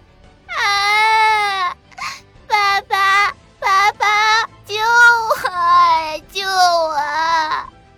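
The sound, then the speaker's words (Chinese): A child at an amusement park bursts into loud, high-pitched wailing, a long opening howl followed by several shorter sobbing bursts with catches of breath between, the pitch wavering up and down. “…从来没见过这种情形，顿时哇的一声哭了”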